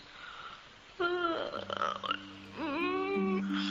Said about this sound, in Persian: خمیازه کشیدن در حضرت سلطان از نزاکت به دوره این کارو برات قدغن میکنیم نمیتونم جلو خودم بگیرم از روی خیلی دوری اومدم هیچ نخوابیدم